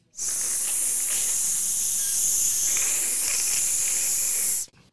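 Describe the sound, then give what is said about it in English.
The sun burning hotter makes a loud, steady hissing sizzle, bright and airy, that holds unbroken for nearly five seconds before cutting off abruptly. No voices, just the continuous hiss. “The sun burned hotter as it got angrier at the moon.”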